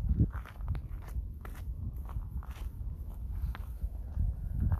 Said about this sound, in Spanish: Oye, ¿oyes los pasos? escucha, escucha.